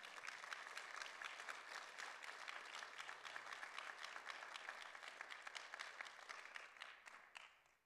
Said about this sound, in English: Let's give them one more round of applause.